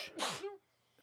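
A single sharp sneeze caused by allergies, a quick intake followed by a loud, breathy blast that trails off into near silence.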